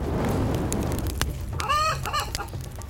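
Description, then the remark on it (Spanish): A chicken writhes, clucks and squawks while held in a ritual beside a fire in a park, giving a burst of harsh, rising calls midway over a steady rustling background, with scattered short clucks before and after. “El animal se retuerce, cacarea,”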